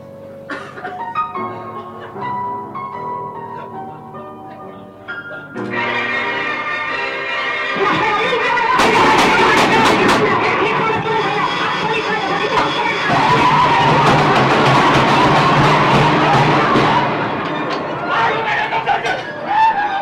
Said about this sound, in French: un hurlement sonore mélange radio, phonographe, piano martelé et boîte de conserve lancée sur l'instrument